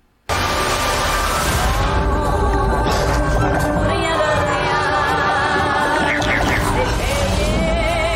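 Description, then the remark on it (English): A voice imitates piranhas with a loud, continuous warbling and chattering noise that starts abruptly and keeps going for about eight seconds, with wavering high tones over a rough, buzzy base. “Because piranhas make that noise.”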